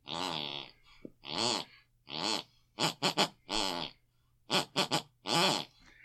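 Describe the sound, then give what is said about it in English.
A mother's buzzing snores, heard from the room next door, rise and fall in pitch as if tracing a song melody, arriving in about ten rhythmic bursts, some quick clusters, over a faint steady low hum. “Each week we press our ear against the bedroom wall, whatever my mother listened to before she goes to bed, picks and pulls on her unconscious mind, and that's the tune. That she is snoring.”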